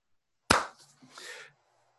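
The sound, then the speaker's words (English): A single sharp hand clap sounds out alone, snapping in suddenly and trailing off into a faint, hissy decay that fades within about a second. “So I'm going to clap now.”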